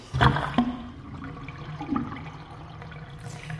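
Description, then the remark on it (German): Water drains away with a rushing, gurgling swirl, starting with a sharp burst and then settling into a steady low flow with occasional glugs. No one speaks. “du hast das Wasser ablaufen lassen.”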